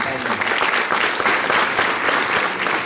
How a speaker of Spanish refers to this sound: Un aplauso para ellos.